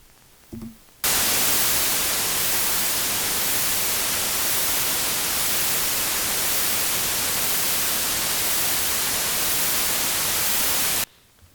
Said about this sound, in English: That one was white noise.